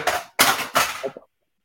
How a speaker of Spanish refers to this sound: se me cayó la calculadora